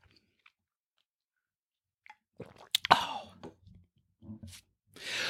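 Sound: sipping coffee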